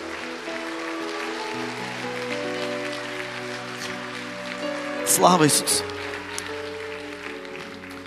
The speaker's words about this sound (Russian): Дай Богу большие аплодисменты.